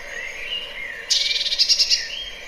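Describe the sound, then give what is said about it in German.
A bird at a feeding site gives thin whistled notes, then breaks into a harsh, rapid chattering burst of about six scratchy pulses, sounding agitated, clear with no talking. “Das ist dann, regen sie sich auch so ein bisschen auf und, und äh, ja. das machen die oft an den Futterstellen, dieses Geräusch.”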